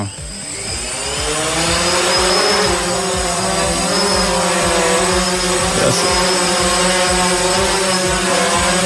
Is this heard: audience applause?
no